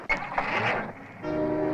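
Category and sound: vehicle, car engine starting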